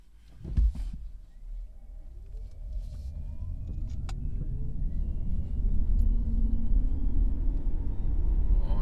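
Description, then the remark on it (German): A car pulls away from a stop on a small street, its engine rumbling low and then building steadily as it drives on, with a brief knock near the start and rising tonal whine from the motor. “So, jetzt sind wir äh, startklar und äh, wir fahren jetzt an, ganz normal mit Geräusch und äh, bin mal mächtig gespannt.”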